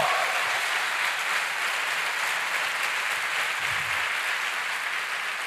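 A church audience bursts into sustained applause offered to the Lord, a dense, steady wash of many hands clapping at an even loudness throughout, with no voices standing out above it.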